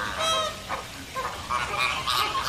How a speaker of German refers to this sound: Man hört schon, während wir uns da jetzt mal nähern, wofür diese Lagune vor allem bekannt ist. Denn hier leben Flamingos.